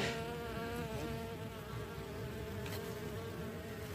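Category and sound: insect, bee buzzing in flight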